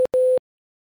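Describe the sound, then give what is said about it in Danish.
A telephone ringback tone heard while calling: a clear, steady electronic hum, first a brief blip and then a longer quarter-second tone, loud, followed by silence. “vi ringer til øh, Daniel, og det er, øh, det er vores sidste, sidste take på det her”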